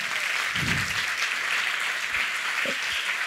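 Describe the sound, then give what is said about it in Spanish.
An audience gives a loud round of applause to the Lord, a dense, steady wash of many hands clapping at once, loud and sustained throughout with no voices rising above it. “Sí, denle un fuerte aplauso al Señor primero.”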